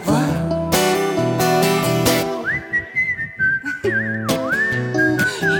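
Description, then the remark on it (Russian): A clear, bright whistled melody glides and wavers over a full band with steady drums and bass, coming in partway through and carrying on to the end, with no one speaking. “Не свисти, говорю, денег не будет.”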